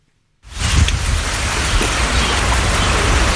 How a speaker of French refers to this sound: La pluie qui est tombée ce week-end sur la forêt de la Chiquitania en Bolivie est un soulagement pour les paysans qui y vivent.